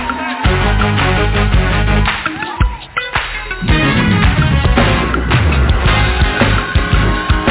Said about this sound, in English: Come on, somebody give God some praise in his house. Come on, don't play with yourself like that. Come on, give them some praise. Come on, clap your hands like this.